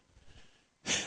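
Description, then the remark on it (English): A single sneeze: a soft, breathy intake followed by a sudden, loud, explosive burst at the end. It stands alone, with no talking. “Bless you guys, too, by the way.”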